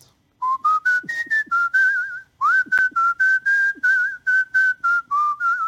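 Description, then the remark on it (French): A person whistles a lively song melody as an evocation of the city of Lyon, a clear sustained tone wavering between pitches in two continuous phrases separated by a brief pause, with no talking. “Euh, est-ce que vous pouvez nous raconter cette ville en sifflet Oula, alors attends, une évocation de Lyon en sifflet.”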